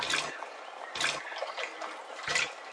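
Gentle water lapping and trickling at a pond, with three soft splashy laps spaced irregularly over a steady watery murmur, no voices, as a small flying creature sits on a water lily leaf and drinks the cool water.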